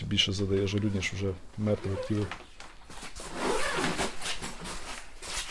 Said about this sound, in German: geht in die Hocke und öffnet den Reißverschluss eines Leichensacks, der im Kühlraum der Halle auf dem Boden liegt.